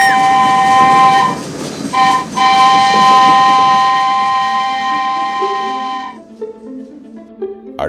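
moving train on rails

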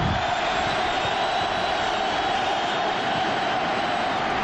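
football stadium crowd reacting

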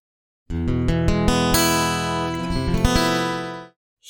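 guitar being played

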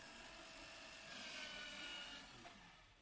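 paper shredder running

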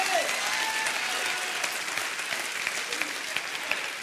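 audience clapping hands

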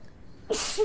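sneeze

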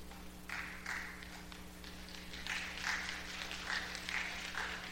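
audience clapping

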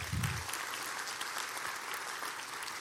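audience clapping

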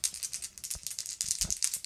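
dice rolling

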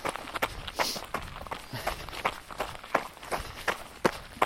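running footsteps

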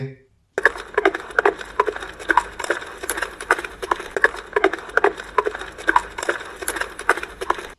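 horse hooves approaching

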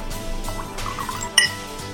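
wine glasses clinking

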